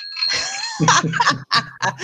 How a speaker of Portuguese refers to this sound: Ó, tomando um chopezinho, ó. Ai, boa. E o meu, sininho, e o meu copinho tem até um sininho, ó.